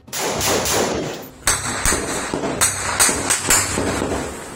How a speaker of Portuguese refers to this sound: Ninguém aguenta mais, é tiro toda hora.